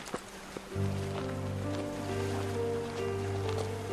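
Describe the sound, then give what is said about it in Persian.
Steady wash of waves rolling in on a deserted beach at Nowshahr, soft and continuous, with a low sustained droning hum entering after a moment and holding underneath; no voices. “چند ده سال بعد شده تنها توی ساحل خلوت نوشهر قدم میزنی”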